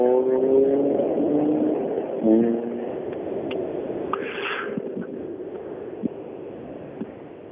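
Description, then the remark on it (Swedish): An old Renault 19 car drives past: its engine hums with a steady tonal drone that fades after a couple of seconds, leaving broad road-like rumble and a few faint clicks and knocks. “Ja, och vad är det? En gammal Megane? Det är kul att komma och se lite äh, andra bilar Renault 19.”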